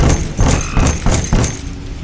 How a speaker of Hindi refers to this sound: क्या कर सकते हैं इस बारिश में हमने थोड़ा डरते हुए दरवाजा खटखटाया